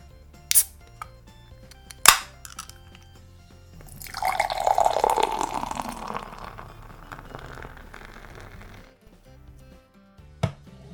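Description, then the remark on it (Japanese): A few sharp clicks and a can-opening snap as a can of black beer is opened, then a sustained foamy pour of the beer into a glass for a couple of seconds, fading out before a final light tap. No talking. “まあねちょっと記憶にないだけにちょっとね飲んでみたいなと思って買ってみましたじゃあねちょっと開けて飲んでいきたいと思います”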